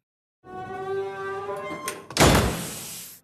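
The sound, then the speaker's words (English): A door creaks slowly on its hinges with a drawn-out, tonal groan, then shuts with a loud thud that rings briefly before fading. “Creaky door closing sound effect here, please.”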